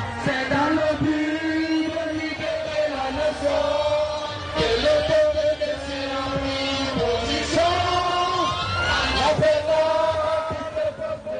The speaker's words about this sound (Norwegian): Dette er lyden av de tusenvis av protestantene i Konakry, hovedstaden i Guinea. Slagordet Amolanfe har blitt en gjenganger i hovedstadens gater.